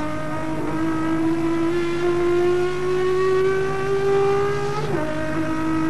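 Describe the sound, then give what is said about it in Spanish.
Turismo Carretera race cars, De Benedictis's Ford leading, Coche López's Chevrolet second and Tony Aventín's Dodge third, roar by at full throttle in the third six-lap heat, the engine pitch climbing steadily before a sharp drop near the end as a gear change hits. Loud, with no talking. “Un Ford, el de Benedictis en la punta, un Chevrolet en segundo lugar, el de Coche López, y un Dodge Volkswagen en tercera instancia, el de Tony Aventín, donde viaja la Cámara de Campeones para esta tercera serie del turismo de carretera a seis giros”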